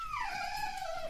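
A pet dog lets out a single drawn-out, falling cry, fairly loud, lasting about a second with no other voices around it.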